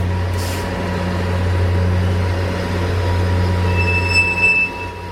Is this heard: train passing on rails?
yes